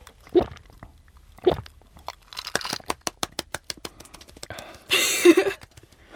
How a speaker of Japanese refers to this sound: 喉の鳴らしっぷりはもしかしたら CM とか飲料系の CM とか使えるかもしれない